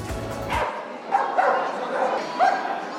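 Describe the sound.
Dogs brought by their owners to view an exhibition bark and yip at the Museum of Contemporary Art in Athens, Greece, on April 4, World Stray Animals Day, giving a few short, high-pitched barks spaced about a second apart over a steady murmur of people talking in the background.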